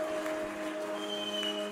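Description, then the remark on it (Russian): A church audience claps steadily for the worship singers in a dense, continuous patter, with a sustained keyboard-like tone humming underneath, without a clear start or finish. “И давайте аплодисменты большие нашим прославителям.”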